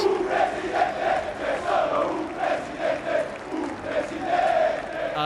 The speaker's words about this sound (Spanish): Entre aplausos y gritos de sus seguidores.